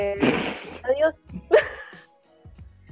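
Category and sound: animal, dog whining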